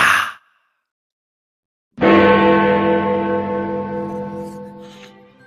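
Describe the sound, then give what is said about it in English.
A short breathy burst, a pause of silence, then a single loud, deep clock-tower bell strike in the style of Big Ben, its rich tone ringing on and slowly fading. “I can hear another noise in the background. It always interrupts at the worst possible time, my friends, like a chime.”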